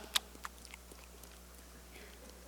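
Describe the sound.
A voice imitates a man chewing gum with a few wet mouth clicks and smacks, two sharper ones early, then fainter, irregular smacking, quiet, with no talking.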